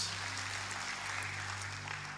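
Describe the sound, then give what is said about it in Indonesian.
A church audience claps together during a sermon, giving applause for Jesus. The applause is sustained and dense, filling the room, steady and fairly loud from start to finish, with a low hum underneath and no talking. “Berikan tepuk tangan buat Tuhan Yesus.”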